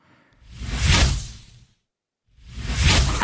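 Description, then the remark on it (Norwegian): Two broad whooshing swoosh transition effects, each swelling up and fading away over about a second and a half, separated by a brief moment of silence. Loud, with no voices. “nå har jeg lært fra Tom at jeg skal ha sånne transitions som lager lyd”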